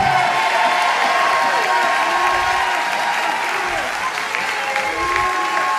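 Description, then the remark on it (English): A large audience claps hands steadily for God for about 30 seconds, a dense continuous wash of applause with scattered voices and shouts rising through it, loud and sustained for the whole stretch. “Take 30 seconds. Clap your hands.”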